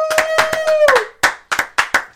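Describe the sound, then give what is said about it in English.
Hands clap in a steady, brisk rhythm, about eight sharp claps over two seconds, with a sustained pitched tone sounding beneath the first few before fading out. “Let's clap that shit up, baby.”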